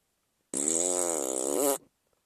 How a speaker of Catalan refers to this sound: I quan els pares van sentir això, van veure el bou, van començar a donar-li cols, i donar-li cols, i donar-li cols, i donar-li cols, fins que el bou ben tip va fer un pet.